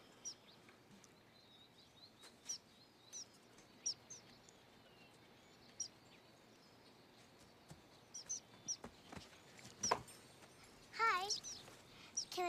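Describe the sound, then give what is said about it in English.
Small birds chirp and tweet in quick, scattered bursts, fairly clear, with a flurry of busier calls near the end over a faint outdoor background hiss. “Hi, little birdies.”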